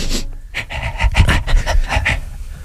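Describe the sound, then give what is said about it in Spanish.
A person imitates an airport sniffer dog panting and sniffing, with quick breathy huffs in an uneven rhythm, fairly loud, with no talking. “Era el perrito.”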